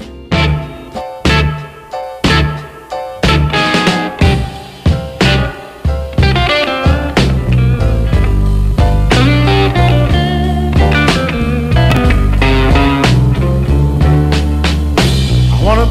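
A blues band plays an instrumental opening: punchy, evenly spaced stabs at first, then fuller sustained guitar and rhythm section, loud and close, with no singing yet.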